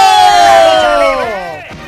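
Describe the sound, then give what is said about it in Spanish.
A radio show crowd cheers and whoops loudly in applause for the radio performers, several voices holding long drawn-out shouts that slide downward in pitch and fade slightly toward the end; no distinct clapping stands out. “¡Fuerte el aplauso para las criaturas radiales!”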